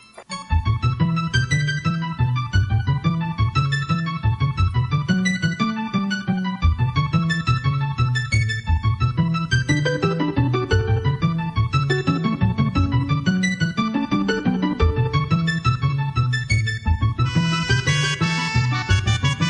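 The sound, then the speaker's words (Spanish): Retro video game music for stage 7, the library stage, plays steadily and loud, a busy melody over a pulsing, rhythmic bass line, with brighter high notes entering near the end and no voices. “Pues así termina, así se termina la, fase, 6 eh, y nos metemos de lleno en la que sería la 7, que suena así.”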